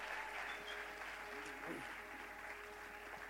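An audience applauds with steady, dense clapping that holds at an even level for a few seconds, with a faint murmur of voices underneath.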